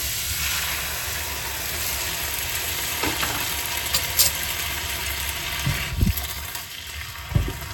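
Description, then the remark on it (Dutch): Steady, loud sizzling of water being added to a hot pan of noodles and broccoli, a dense crackling hiss throughout with a few sharper pops and clatters near the end, and no one talking. “Ik voeg wat water toe.”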